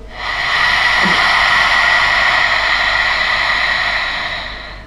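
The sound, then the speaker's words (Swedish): A steady, breathy hiss of air pushed out through an open throat, like fogging up a window, sustained for several seconds with no talking, as part of a breathing exercise. “Så det här susande, brusande lätet, mm. som att du nästan immar en ruta.”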